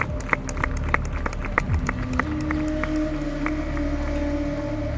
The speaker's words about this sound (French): Et là, les professeurs s'applaudissent et puis les étudiants autour qui se sont rapprochés des applaudissent aussi.